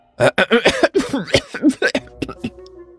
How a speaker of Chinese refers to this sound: 干球急促的一阵咳嗽啊，表情变得异常古怪。